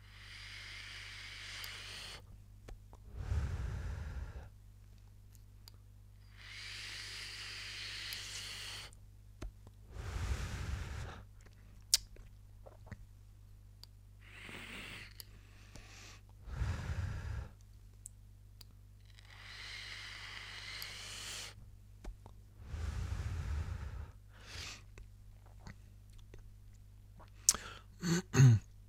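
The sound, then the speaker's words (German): Vaping with direct lung inhales and exhales, airflow fully opened, using liquid with 6 mg nicotine: several cycles of breathy, airy hissing rush in and out at an unhurried pace, with a few soft low thumps and light clicks, and no talking. “Ich mache es jetzt einmal ganz auf und dampfe das Ganze einmal direkt Lunge.”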